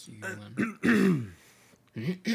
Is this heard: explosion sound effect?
no